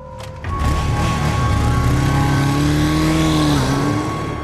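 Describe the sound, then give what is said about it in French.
A motorcycle engine revs up loudly and holds a steady, throaty drone as the motorcycle comes, leaves and returns at the foot of an apartment building in the cité de la Cayolle, pitch climbing and wavering slightly, with no voices present. “Et on voit en bas de l'immeuble une moto venir, repartir, revenir.”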